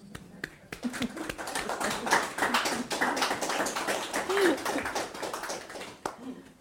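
An audience breaks into applause to thank the person who prepared a conversation: dense, rapid clapping from many hands that swells and holds steady for several seconds, with a few faint voices mixed in, before thinning out at the end.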